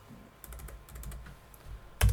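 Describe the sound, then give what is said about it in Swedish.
Rapid, light computer keyboard clicks tap out an irregular typing rhythm, ending with a louder, sharper click or thump as someone clicks into a view of system values on the computer; no one speaks. “Så nu klickar vi in här på vårlöken eftersom det är lite av ett huvudämne.”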